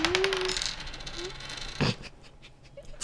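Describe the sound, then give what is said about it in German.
A die knocked off a table by another die drops onto a hard floor with a single sharp clack midway through, preceded by a faint, thin whining tone against quiet background noise. “Ich habe mit meinem, ich habe mit dem vierten Würfel, den ich als Ersatz würfen wollte, der an den anderen runtergeschmissen.”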